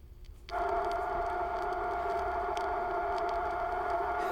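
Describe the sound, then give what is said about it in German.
A steady, continuous hissing tone with a strong midrange hum, the noise of a water pipe leak filtered to remove unwanted background sounds, starts abruptly after half a second and holds evenly to the end, with no voices. “Anschließend als Geräusch Nummer 2, Number 2, werden die von jedem vorgeführten Leckgeräusche von unerwünschten Nebengeräuschen befreit.”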